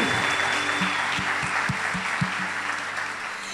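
A crowd at a worship service applauds the team that serves at each service, clapping steadily, a dense wash of many hands clapping at once, holding a fairly even loudness throughout with a few low thumps underneath.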